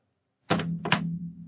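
A phone is thrown down onto a hard surface, landing with a loud thud, then a quick second bounce, followed by a low lingering resonance. No one speaks.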